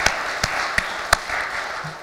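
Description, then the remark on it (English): A crowd in a small parish claps together for everyone involved in a parish effort, a steady wash of many hands with a few sharper individual claps popping out at irregular moments. No one speaks over it. “So let us give a round of applause for all those who are involved.”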